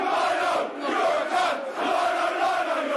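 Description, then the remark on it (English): A large football crowd at a Millwall versus Brentford match roars and jeers at the linesman in a continuous, loud wall of voices, swelling and dipping slightly over a few seconds with no single speaker standing out. “Clearly rattled by the abuse he's taking.”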